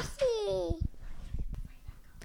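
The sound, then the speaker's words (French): A baby lets out a short, high-pitched babbling squeal that glides downward, followed by quieter murmurs and soft rustling. “Intermède bébé.”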